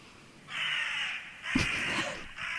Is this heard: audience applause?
no